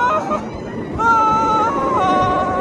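A person screams on the Superman roller coaster at Parque Warner, which reaches about 100 km/h, a long, high, wavering cry that holds for nearly two seconds over loud, steady rushing ride noise, with shorter vocal sounds just before it.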